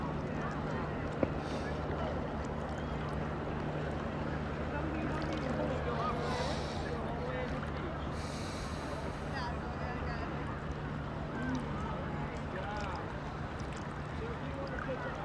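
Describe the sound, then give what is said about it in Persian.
Steady, continuous wash of water at a lake or river shore, even in level, with a low droning hum underneath and occasional brief gusts of airy noise. “کنار یه دریاچه یا یه رودخونه یه جایی که آب هست آب خنک احتمالا یا نشستیم یا پاهامون توی آبه”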